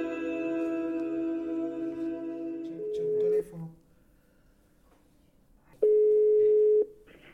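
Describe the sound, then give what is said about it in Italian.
An outgoing phone call's ringback tone, calling illustrator and comic author Pietro Scarnera: two steady, mid-pitched beeps about a second long, separated by a few seconds of quiet. A sustained buzzing, harmonic tone plays before them. “Vi auguro un buon ascolto e vi lascio a Enrico e Martin che hanno raggiunto telefonicamente Pietro Scarnera, illustratore, fumettista e autore dell'albo illustrato Una stella tranquilla, ritratto sentimentale di Primo Levi.”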